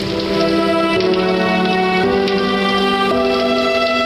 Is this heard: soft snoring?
no